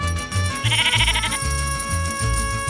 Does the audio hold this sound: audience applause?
no